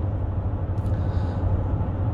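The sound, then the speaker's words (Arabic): A steady low rumble of a car in motion, heard from inside while driving on the road to the Shuwaikh Industrial area to change a tyre, with a constant engine drone and road noise throughout and no talking. “وأنا طبعا رايح شويخ الحين شويخ صناعية نبدل آه، تاير السيارة كفر يعني”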